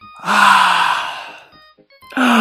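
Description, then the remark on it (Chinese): A voice imitates a little bear's yawn while reading a children's story: one long, breathy, drawn-out vocal sound with slowly falling pitch, a brief pause, then a second yawn-like sound starting loudly. “小熊总爱打哈欠。”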